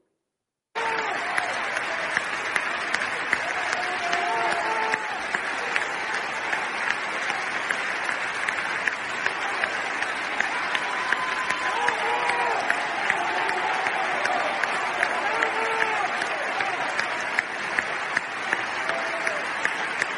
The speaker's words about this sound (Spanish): Pero vamos a ver la ovación del público de Madrid ayer.